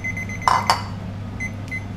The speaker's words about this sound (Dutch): 10 minuten, ik pak mijn wekker dat heel subtiel piept.